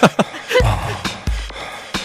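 Short, sharp panting breaths repeat over electronic music, set against deep bass thuds that pulse underneath. The breaths are loud and rhythmic, with no talking.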